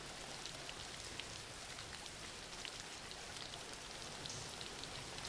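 Steady rain falling without pause, a dense hiss of countless drops spread across the highs with soft patters scattered through it. No voices, just an even, constant downpour.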